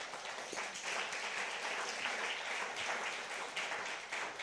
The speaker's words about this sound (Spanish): Dele un aplauso, Señor. Vamos, de alabanza.